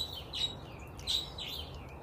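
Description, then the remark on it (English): Pet birds let out shrill, screeching calls in a few repeated bursts, fairly quiet over a steady background hiss, with no one talking. “I love my birds, even though they're they're screaming at me.”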